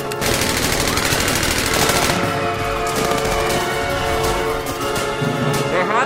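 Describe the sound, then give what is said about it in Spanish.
Continuous bursts of rapid gunfire, loud, with dense overlapping shots sustained across the whole span and little pause between volleys. “Disparo número uno.”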